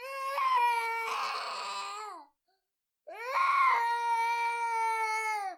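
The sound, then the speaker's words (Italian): A baby wails loudly and angrily in two long, strained cries separated by a brief silence, each rising harsh and intense with a shrill, grating edge, with no one talking. “C'è il pianto definito basale, quello rabbioso,”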